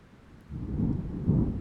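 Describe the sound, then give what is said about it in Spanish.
Steady rain on a cold night after 8 p.m., with a low, rumbling wash of noise that swells after a quiet start and stays dense and fairly loud, with no voices. “Hacía frío y estaba lloviendo.”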